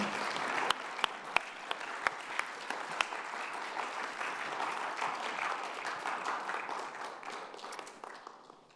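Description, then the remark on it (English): An audience applauds to thank a panel, steadily for several seconds, a dense patter of many hands with a few sharp, louder claps standing out early on, before the clapping gradually thins and fades. “Let's say thanks to our panel for being up here this morning with us.”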